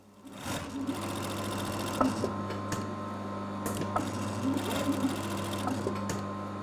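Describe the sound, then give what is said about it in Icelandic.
A sewing machine sewing a flag runs steadily with a continuous low mechanical hum and rapid needle clatter, holding an even pace for several seconds with no talking over it. “Já, það er mjög mikið atriði að hérna sauma fánan saman í, í sagt, öll stykkin”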